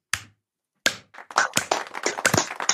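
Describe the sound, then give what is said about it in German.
A single person claps their hands for themselves: two separate claps, then a quick run of steady, fairly loud claps, with no talking. “Mindestens ein kleiner Applaus für mich, den gebe ich mir selber zu”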